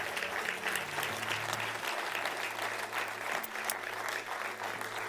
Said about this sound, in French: Et si vous avez les mains libres, vous pouvez applaudir le Seigneur.